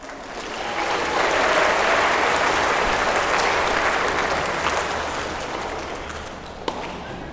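An audience applauds with dense, steady clapping that swells in the first second, holds strong for several seconds, then gradually thins and softens toward the end.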